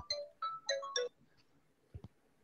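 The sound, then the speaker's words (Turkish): A phone ringtone plays a short melodic phrase of bright electronic tones, four quick notes in a row, followed by a pause and a couple of soft knocks or thumps. “Telefonu ters mi? Heh, şimdi. Pardon.”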